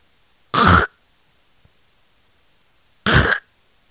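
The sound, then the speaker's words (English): A voice imitates the harsh, choking throat-clearing of Sho Baraka in a hotel room: two loud, raspy hacking bursts, each about a third of a second, separated by a few seconds of silence, unaccompanied. “I, am thinking this guy's in there choking to death.”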